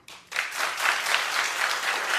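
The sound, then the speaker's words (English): Steady applause from a crowd, many hands clapping together in a dense, continuous patter that starts abruptly and holds at a fairly loud level, with no talking over it. “Keep clapping.”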